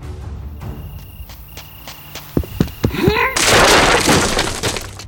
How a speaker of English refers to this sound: crashed through the door and burst into the darkened hall beyond, sending splinters of rent timber everywhere.